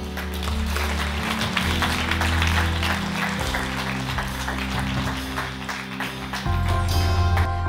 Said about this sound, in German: Lass uns Gott mal einen großen Applaus geben.